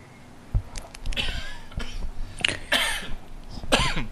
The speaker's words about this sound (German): und ich rede mich mal in meinen Husten hinein. So ein Mist.